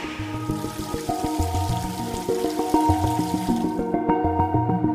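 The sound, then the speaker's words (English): Water hauled from a well pours steadily into a large storage tank, about 600 gallons, a continuous rushing fill with ringing, shifting resonant tones from the vessel. Fairly loud, with no voices. “Do about 600 gallons, and we'll be here for about an hour and a half.”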